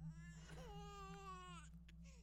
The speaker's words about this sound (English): We both heard a baby crying still. Together, scared, we walked out the front door and stood on the porch. We could still hear it, but it was faint. It wasn't coming from the front of our house, it was coming from the back.